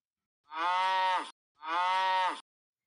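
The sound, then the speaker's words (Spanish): A cow moos twice, two long, full-throated calls of about a second each separated by a brief pause, clear with no voices around them. “No, no la he visto, amiga lagartija, pero si la veo por alguna parte, mugiré para avisarte.”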